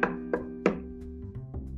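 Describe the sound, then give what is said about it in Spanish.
Knocking on a door, the wolf knocking at the three little pigs' door in a telling of The Three Little Pigs: three firm, evenly spaced knocks, then a few softer taps, all over a steady, sustained musical drone with no one talking. “Justo en ese momento, los tres cerditos escucharon que tocaban la puerta.”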